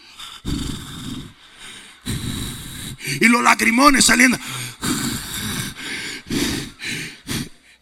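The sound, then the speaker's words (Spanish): A person imitates someone breathing with Vicks VapoRub: heavy, forceful sniffing and breathing in a run of loud, noisy bursts, with a brief stretch of talking in the middle. “¿Usted han visto una gente respirando con viva vaporú?”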